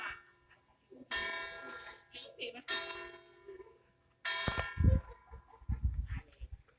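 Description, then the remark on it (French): Church bells ring in a few loud, ringing peals spaced about a second apart, each leaving a shimmering tone, followed by some muffled low rumbling noise. “Hop, vous avez les cloches.”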